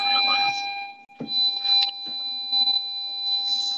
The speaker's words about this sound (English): I'm sorry about the peeping noise. I'm just driving the car here. I'm just gonna get out the parking lot.